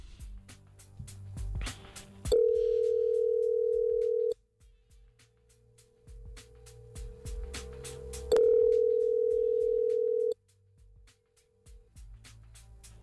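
Two long, steady ringback tones on an outgoing phone call placed by a radio show host to a friend of the show, each about two seconds, separated by a longer pause, over a quiet low background hum.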